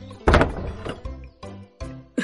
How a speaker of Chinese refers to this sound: 砰的一声。王小将门又关上了